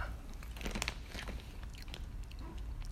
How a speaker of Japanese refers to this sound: まあ、これもちょっとポリポリ食べながらダラダラしたいなという感じですね。